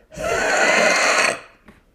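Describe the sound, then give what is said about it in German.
A person forcefully exhales with pressure, imitating a heavy smoker: one raspy exhale lasting just over a second, a loud breathy rush with a wheezy rattle, then a faint short puff. “Also ich möchte das kurz vormachen, wenn ich so tief aus, also wenn ich ausatme mit Druck, klingt das so.”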